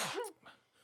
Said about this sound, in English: If you got to sneeze again, just let that baby fly